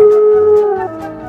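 A dog lets out a single loud, sustained howl, holding a steady pitch before it wavers and trails off. No voices accompany it.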